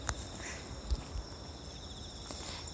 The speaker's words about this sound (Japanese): はい今ちょうどね川沿いを歩いておりますよなんでより一層虫の声が